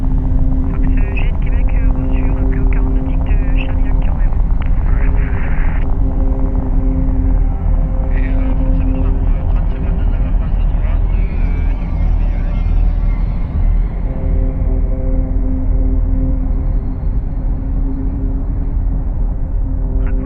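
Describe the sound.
A loud, steady helicopter engine and rotor drone fills the whole recording, a constant low roar with a humming tone, while faint muffled voices come and go underneath.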